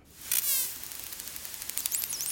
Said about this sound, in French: ce sifflement provient d'un groupe de dauphins. Un dauphin. J'ai hésité à dire dauphin. Ils communiquent, ils émettent des fréquences très hautes et des ultrasons